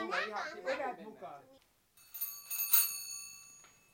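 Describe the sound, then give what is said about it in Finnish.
A person talks briefly, then after a short pause a doorbell rings with bright, sustained metallic tones, a couple of overlapping strikes fading out. “Mulla soi ovikello.”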